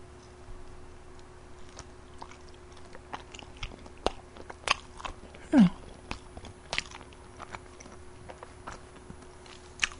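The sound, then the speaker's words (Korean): Someone bites into and chews egg white and yolk together dipped in salt, with irregular soft crunches and wet clicks scattered over ten seconds and one louder chomp midway; a low steady hum runs underneath and no one speaks. “이렇게 먹는 거예요.”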